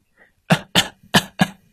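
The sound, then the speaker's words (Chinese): Four sharp, raspy coughs in a steady rhythm, each a loud burst with a breathy, scratchy edge, repeated in quick succession with no talking. “咳嗽的声音是在告诉我们，有感冒病毒正在入侵我们的身体。”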